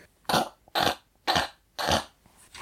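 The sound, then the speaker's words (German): A voice imitates an MRI scanner with four loud, harsh, buzzing bursts in a steady rhythm, each about a third of a second long, separated by short pauses. “Es macht zumindest nicht diese fiesen Geräusche, also diese.”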